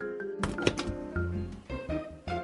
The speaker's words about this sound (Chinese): 咚咚咚，门口响起了敲门声，咪咪熊急忙跑去开门。